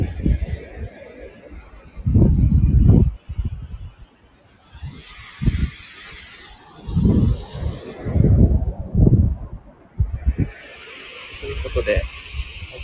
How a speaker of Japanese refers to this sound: 海の音をお伝えしました。